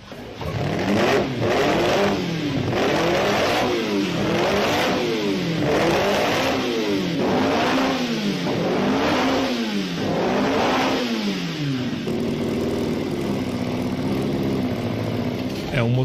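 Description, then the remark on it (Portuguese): A 2-liter Alfa Romeo V8 racing engine, as fitted to the 33 racing cars, revs hard in a repeated rise-and-fall pattern, about eight sharp throttle blips in a row, loud, then settles into a steady high idle. “É um motor 2.0 V8 que equipou os P33 de corrida, o 33 Stradale”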